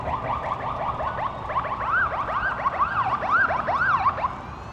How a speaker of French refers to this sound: Les sirènes hurlantes des véhicules de pompiers furent en place en moins de cinq minutes aspergeant toute la scène de mousse chimique cherchant des possibles foyers cachés.